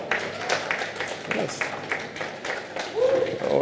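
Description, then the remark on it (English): An audience claps for a few seconds, a dense, irregular patter of hand claps at a steady, moderate level, with a brief voice rising over it near the end. “Those that didn't clap well, don't worry, your own time is coming.”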